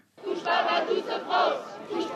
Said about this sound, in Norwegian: Taktfast roper de ut 'Ikke rør mitt Frankrike' på Republikkplassen i sentrum av Paris. Unge, multikulturelle franskmenn viser solidaritet og støtte med de mange som er rammet av terroren.